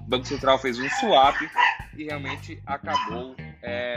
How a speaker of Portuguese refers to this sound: é um cachorro latindo aqui fora que teve gente chegando no portão